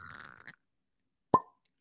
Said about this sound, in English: oh i got I got a fresh cork pop here bro oh pop it good